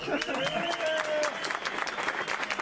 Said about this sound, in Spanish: Un aplauso.